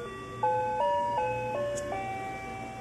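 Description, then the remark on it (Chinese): A FamilyMart convenience store door entry chime plays its electronic melody to greet customers: a handful of sustained, bright tones stepping up and down in an even rhythm, moderately loud over a faint low hum, with no talking. “那他们都会在门口放一些迎接顾客的门铃声哦。”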